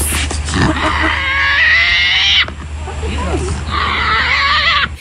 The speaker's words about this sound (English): It's actually the sound of a Tasmanian devil going head to head with a wildlife keeper after the marsupial stole a woman's phone.